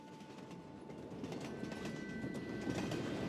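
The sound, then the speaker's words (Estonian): A train from Warsaw to Wrocław rumbles steadily along the rails on a winter day with a faint rhythmic clatter, the noise building slightly louder over a few seconds, with a thin high whine running underneath. No voices are heard. “Varssavast rongiga Wroclawi, sealt bussiga Legnitšasse, kust vana Jaanus ta Poloneesiga Viezolovkasse toimetab.”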